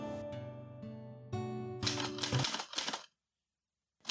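A quick flurry of typewriter keys clacking over soft, sustained background music, the sharp strikes tumbling together for about a second before everything cuts to silence.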